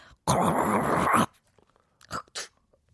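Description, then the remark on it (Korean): A voice imitates the suction device at a Russian dental clinic with one loud, harsh, raspy hiss lasting about a second, followed by two short, quieter throaty bursts. “어, 러시아 치과의 석션 한번 들어보겠습니다.”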